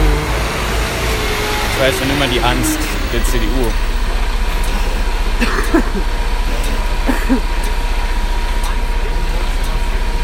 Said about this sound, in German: Übrigens, das LKW, was ihr da hört, das ist typisch. Berlin ist halt so viel Baustelle überall. Das nervt. Ja, aber es ist ein sehr schöner äh, weißer Zementmischer. Von lieb her.